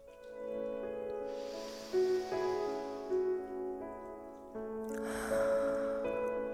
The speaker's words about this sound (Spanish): Y empezamos, o bueno, mejor dicho, continuamos respirando profundamente.